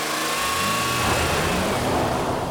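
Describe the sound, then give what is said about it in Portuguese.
A car engine revs up steadily as the clutch is slowly released and the driver accelerates gently during a driving lesson, its pitch climbing over a couple of seconds as it pulls away, loud with a continuous rough hum and no voices. “Agora solte a embreagem pouco a pouco ao acelerar devagarinho.”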